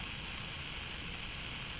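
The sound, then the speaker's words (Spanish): A steady, unbroken hiss of white noise from an early cylinder recorder found in a basement, playing back an inserted cylinder with nothing but static, fills the short moment at an even, moderate level with no voices or other sounds. “Ruido blanco.”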